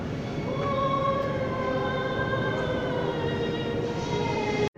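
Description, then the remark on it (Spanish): Steady, loud rumble of a subway train in an underground station in Buenos Aires, with high metallic whines and squeals from the wheels over the roar, continuing throughout before cutting off abruptly at the end. No voices are heard. “de escuchar su canto lírico aquí en el subte de Buenos Aires.”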